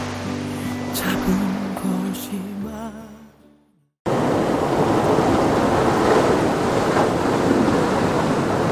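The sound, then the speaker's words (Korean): A short musical passage fades to a brief silence, then a loud, steady wash of ocean surf rolls in, waves breaking and hissing on the shore of Gwangalli beach with gentle swells rising and falling. “해수욕장 파도 소리를 깔겠습니다.”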